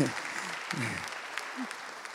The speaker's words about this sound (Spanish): Dese un aplauso, por favor.